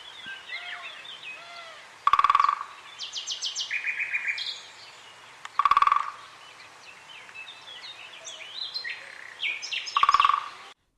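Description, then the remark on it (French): Three short, rapid drumming rolls from a great spotted woodpecker, spaced a few seconds apart, stand out clearly against a steady background of chirping and singing birds. “Je ne vous ai pas encore parlé d'un drôle d'oiseau, c'est le le dire le pic et pêche. Lui, il s'exprime d'une façon vraiment inattendue.”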